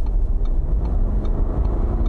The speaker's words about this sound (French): voilà, ce bruit-là, ce petit bruit-là, quand les clapets s'ouvrent sur les échappements,